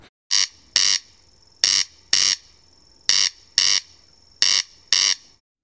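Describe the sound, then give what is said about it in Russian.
A corncrake calls its dry, rasping crex-crex, four loud paired bursts in a steady rhythm, clear with no voices over it. “Я тоже не знал, это такая очень странная птица, которая ходит в основном пешком, она ростом примерно по колено и издает очень забавные звуки, которые лежат в основе ее латинского названия «крекс-крекс».”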